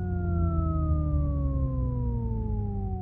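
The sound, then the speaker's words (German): A programmed synthetic electric car interior sound with some noise mixed in, made for a listening test: a steady, layered electronic hum with deep subharmonic undertones, its pitch sliding slowly downward, continuous and fairly loud, with no voices. “programmierte synthetische Innenraumklänge, einige mit mehr, andere mit weniger subharmonischen”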